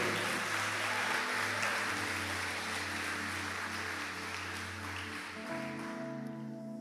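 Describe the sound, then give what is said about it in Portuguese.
A church audience applauding the Lord, a dense, steady wash of clapping that holds for several seconds, with a sustained low hum and soft held keyboard tones underneath. “E aconteceu isso, aplauda o Senhor.”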